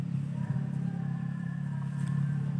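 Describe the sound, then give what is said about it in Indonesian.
A steady engine drone of a motorcycle in a forest area hums continuously at moderate loudness with a slight rising whine, as if passing by. “uh, sorry guys ya maklumlah hutan kalau ada motor”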